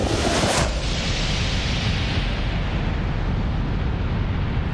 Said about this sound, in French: Boum attendez, pourquoi boum et pourquoi la Terre éclata enfin